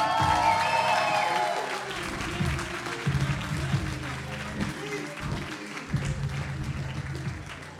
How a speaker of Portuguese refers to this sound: Só mais um aplauso, faz favor, faz favor. Mais um aplauso.